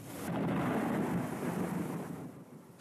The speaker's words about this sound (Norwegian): Lyn og torden preger havområdet denne dagen.